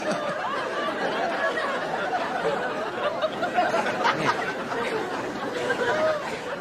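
Dense, steady murmur of many overlapping voices filling a room, with scattered laughter and chuckles rising out of the crowd noise throughout, like a busy bar.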